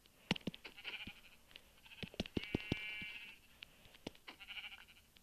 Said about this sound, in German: Oh nein, das ist ein schwarzes Schaf.